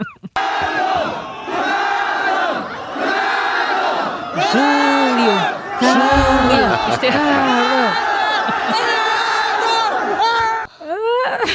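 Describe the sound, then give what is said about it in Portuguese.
A dense crowd of fans screams loudly and almost nonstop at Ronaldo's arrival at an airport in China, many high-pitched voices overlapping in rising and falling waves, with a brief shouted word near the start and a short break near the end. “vamos ouvir o som da vamos, chegada vamos. de Ronaldo à China”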